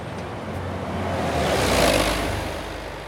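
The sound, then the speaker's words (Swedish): Road traffic rumbles by outside a shop, a single vehicle's engine swelling in loudness as it passes and then fading away, over a steady low hum of street noise with no voices. “Ville trafikken utenfor Anettes butik, med den röda jackan i dörröppningen, gå från?”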